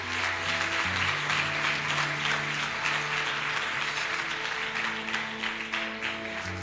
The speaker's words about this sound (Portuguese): Aplauda a palavra do Senhor nessa noite.